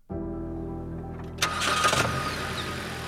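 A bulletproof car's engine cranks and catches, then settles into a steady low rumble that swells briefly as it revs before holding at idle, with no voices, as the car sets off into a city in Texas.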